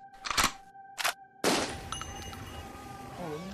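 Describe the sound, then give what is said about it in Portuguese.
Gunshot sound effects: two sharp, quick cracks followed by a louder, booming shot that rings out with a long echoing decay, all over a faint steady background hum. “tiro pega na casa mata ali, dá aquela estampido.”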